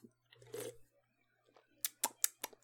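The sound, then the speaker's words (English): A small sip of a citrusy, fruity seasonal drink from a can: a brief, soft slurping burst, then a quick run of five or six sharp little clicks and taps. No one speaks. “That was a nice little sip there.”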